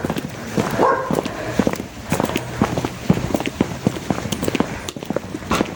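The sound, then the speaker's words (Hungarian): Dogs bark in short bursts outdoors at people walking by, mixed with a steady patter of footsteps crunching along the ground; no one speaks. “Na, minket ugat minden kutya egyedül.”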